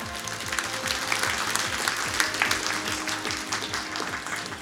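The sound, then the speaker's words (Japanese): Steady, sustained applause from an audience welcoming the president of the company Riso Kyoiku on an investor-relations program, a dense wash of many hands clapping at moderate loudness throughout, with a faint musical undertone beneath and no one speaking. “盛大な拍手でお迎えください”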